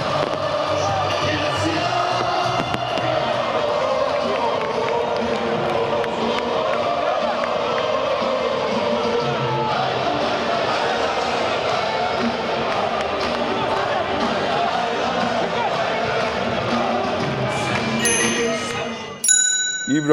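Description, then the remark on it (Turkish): A large, dense crowd at a football championship celebration in Denizli in 2008 roars and chants continuously, voices blending into a sustained celebratory din, with a brief sharp ringing tone near the end. “İbrahim Toraman bu şampiyonluk kutlamalarını izlerken ne hissediyor?”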